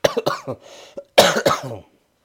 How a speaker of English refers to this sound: yeah, my, my cough's nearly gone.